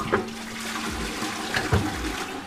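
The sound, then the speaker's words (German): A toilet flush rushes steadily through the whole moment, a broad wash of water noise with a few brief gurgles and clunks, moderately loud, with no voices. “Alexa fürs Klo.”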